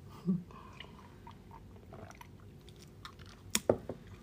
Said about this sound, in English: okay so i'm gonna take a sip of my tea